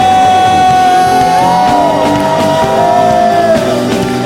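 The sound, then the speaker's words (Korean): An audience of believers shouts and cheers in praise to the Lord, a loud, continuous roar of many voices filling the whole stretch, with a steady held musical tone sounding underneath. “우리 믿으신 분들 주님께 함성”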